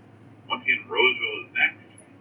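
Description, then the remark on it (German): A tinny, band-limited voice speaks briefly over a loudspeaker, like an onboard train announcement before a station, in a few short bursts against a low background hum. “Ähm, erreichen wir gleich den nächsten Bahnhof? Hört man, glaube ich, die Durchsage.”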